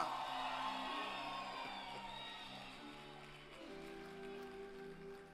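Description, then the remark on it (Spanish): An audience stands and erupts in a victory cry: loud, sustained shouting and whooping, many voices overlapping in a roaring cheer that holds steady throughout, with some voices holding long sustained tones. “Si tú lo crees, ponte de pie y de un grito de victoria.”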